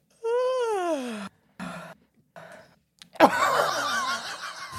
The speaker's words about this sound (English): Did I hit the yawn button last time when we introduced? Did I go? I don't know if I did. I think I did.